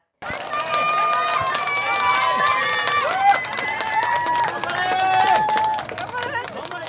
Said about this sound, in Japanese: サッカーワールドカップアジア最終予選でオーストラリア戦を控えた日本代表が21日月曜日、シドニー郊外小倉のジュビリースタジアムで公開練習を行いました。会場には日本代表の姿を一目見ようと、100人を超える子どもたちとその家族が集合し、選手に向かって声援を送りました。